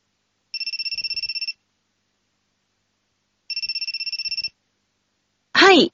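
A telephone rings in two electronic trilling bursts about a second long with a pause between, then a short rising tone cuts in at the end; no one speaks.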